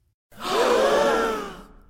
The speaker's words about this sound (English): The crowd of courtiers audibly gasped